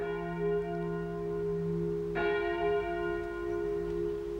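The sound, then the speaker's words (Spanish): A convent church bell in the state of Oaxaca, Mexico, rings with a rich, sustained tone, struck again partway through so a fresh bright clang blooms over the lingering hum, moderately loud with no voices. “El sonido de la campana marcaba las actividades de la vida conventual, igual que la corneta la vida de los cuarteles.”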